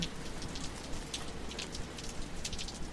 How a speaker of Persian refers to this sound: بارون میاد جر جر رو خونه های بیدر